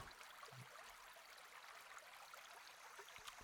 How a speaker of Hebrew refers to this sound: אז זה ככה הצלילים של הנחל.